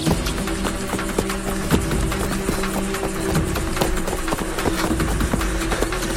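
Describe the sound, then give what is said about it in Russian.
Several young men run into a forest after rolling over the edge of a trench, their quick, uneven footfalls thudding and crunching over a steady low background rumble, with no voices. “Перекатившись через край окопа, парни бегут в лес.”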